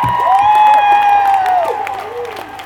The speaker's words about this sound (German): Applaus für Sie!